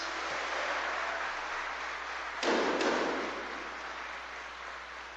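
An audience at a Mass applauds the parish priest steadily for several seconds, a dense wash of clapping that swells briefly midway before settling back to a steady level. No one speaks.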